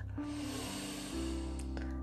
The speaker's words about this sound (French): Vous prenez une grande respiration, là maintenant profonde.